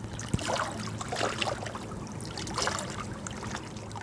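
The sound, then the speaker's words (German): Water of Lake Geneva splashes and laps steadily against the thick walls of the Château de Chillon near Montreux, Switzerland, with irregular gurgling bursts over a low constant hum and no voices. “Hinter den dicken Schlossmauern plätschert und glitzert Türkis der Genfer See aber der schöne Ausblick ist vergittert.”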